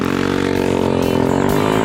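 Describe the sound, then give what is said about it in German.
A Vespa scooter engine revs loudly and steadily, its buzzing harmonic drone climbing slightly in pitch over about two seconds, with no voices over it. “Mit unserer neuen Vespa”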